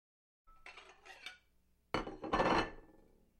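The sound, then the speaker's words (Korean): A father sets a bowl of cold, pale green pea soup down on a table with a clear clatter. Some lighter scraping and clinking comes first, then one sharper, louder knock of dishware. “아빠가 그릇을 내려놓았다.”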